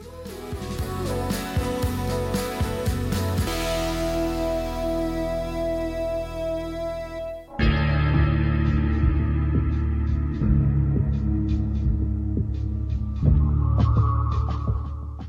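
An instrumental music track plays on the radio station Radio Volt, with sustained, droning synth tones, then shifts midway into a fuller, brighter section with steady percussive hits. Loud, with no voices.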